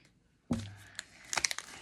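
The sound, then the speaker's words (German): A foil Pokémon card booster pack, one of three Purpur packs, is torn open: a sharp rip, then a run of bright, crisp crinkles and crackles lasting about a second. No voices are heard. “Ja, drei kamen sie Purpur Packs. Und die werden jetzt geöffnet.”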